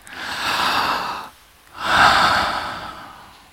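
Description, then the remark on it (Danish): A crowd of people, asked to try it a second time, takes a long, deep collective breath in, pauses briefly, then lets it out together in a broad, airy whoosh that slowly fades. “Kan I lige prøve alle sammen at tage sådan en dyb og sådan der.”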